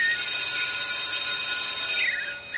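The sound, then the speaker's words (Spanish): A loud electric bell rings continuously with a shrill, metallic buzz, like a school bell, sustained without pause through the whole stretch and briefly wavering in pitch near the end. “ya ha tocado el timbre.”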